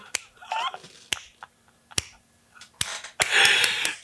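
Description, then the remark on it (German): Slow, deliberate hand clapping: about six sharp single claps spaced roughly a second apart, with soft breathy noises in between. “Aber so slow clapping. So.”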